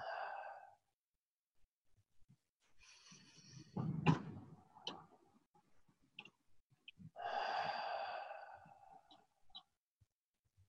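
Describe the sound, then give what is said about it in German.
Slow, deep breaths drawn into the belly and let out during a relaxation exercise, a long airy inhale followed by a sighing exhale, clearly audible with no talking. “Und tief in den Bauch atmen.”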